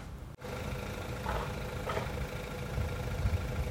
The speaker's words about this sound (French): Voilà, ça fait 5 minutes que j'attends qu'elle s'en aille la voiture, mais non, non, elle a avec son gros moteur juste à côté.